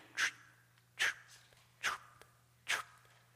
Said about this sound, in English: Did anybody else hear the slurping of the baptistry? You may be too far back. I sat there and I thought, oh man, we needed to put a little bit more water in the baptistry because the pump is running through there and air gets in there and it goes.